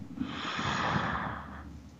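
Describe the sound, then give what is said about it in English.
A single long, deep breath drawn in and let out, a soft airy rush that swells and fades over about two seconds with no talking. “Breathe in and breathe out.”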